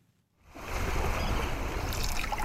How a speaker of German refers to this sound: Nur das leise Plätschern der Ruder im Wasser ist zu hören